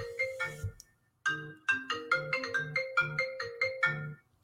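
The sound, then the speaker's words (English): A phone ringtone for an incoming call about a laptop plays a bright, bouncy electronic melody of quick repeated notes, breaks off briefly, then starts the tune again, loud with no voices. “There's somebody calling about a laptop.”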